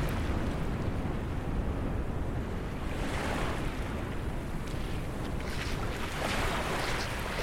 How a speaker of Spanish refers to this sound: La arena se siente fría en tus pies y las olas producen un sonido que hipnotiza.